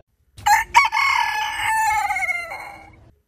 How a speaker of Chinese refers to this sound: 公鸡都叫到声音沙哑喽，叫那么久，你还还不起床干什么哈？